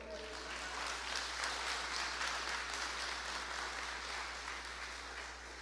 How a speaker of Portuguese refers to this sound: Quantos creem nisso? podem dar um aplauso para o Senhor.